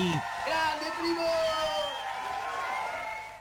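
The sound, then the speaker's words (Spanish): An audience cheers and whoops, several voices shouting with sliding, held tones over a dense wash of crowd noise and possible clapping, staying loud for a few seconds before easing off. “Exactamente, cuando pasaron 44 minutos me voy a tomar el atrevimiento de darle un aplauso más”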